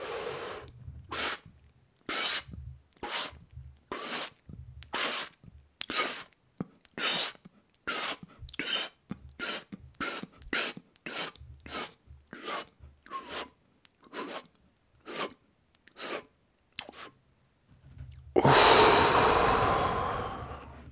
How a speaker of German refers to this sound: Ganz gleich, ob durch Mund oder Nase. Und zwar bis es nicht mehr geht. Und wenn du ganz oben bist und voll bist, dann versuchst du jetzt noch mehr Luft in dich hineinzupacken, in Anführungszeichen. Das hört sich dann so an.